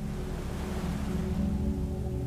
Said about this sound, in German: Das Rauschen der Wellen wird lauter, während du dich dem Strand näherst.